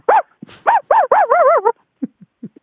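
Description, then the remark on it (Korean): A person vocally imitates an ordinary dog, the first of a set of dog impressions showing a dog's emotions, with a run of loud yips and barks, the last few held and wavering, followed by a few softer short sounds. No words are spoken. “저는 어, 강아지의 감정을 나타내는 성대모사를 준비를 했는데 네. 일단 어, 일단 평범한 강아지 먼저 해보겠습니다.”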